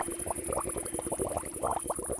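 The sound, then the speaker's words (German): Steady, dense bubbling in water, a continuous burble of many small pops and gurgles at moderate loudness, with no voices. “Ähm, da blubbert etwas im Wasser.”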